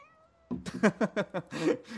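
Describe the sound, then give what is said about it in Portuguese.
A female cat meows in a quick series of short vocal calls after a brief quiet moment, ending in a longer drawn-out meow, with no talking during the sounds. “Ela disse alguma coisa.”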